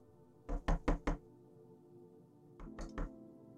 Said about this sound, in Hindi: वो इसी बात का पता लगाने के लिए वहां गया था ताकि खोली का दरवाज़ा उसने खटखटाया